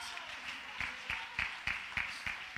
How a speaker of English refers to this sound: Come on, jump to your feet and clap your hands and shout, He brought me out! He brought me out!